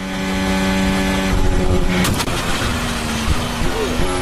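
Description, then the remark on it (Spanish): A Formula 1 Ferrari's engine drones loudly and steadily, then a sudden sharp crash of metal rings out about halfway through as the car strikes a manhole cover that lifted as it passed, breaking the car's floor, followed by rattling as the engine keeps roaring. “la tapa de una alcantarilla que se levantó al paso de Carlos Sainz y rompió el piso y algunos elementos importantes de la Ferrari”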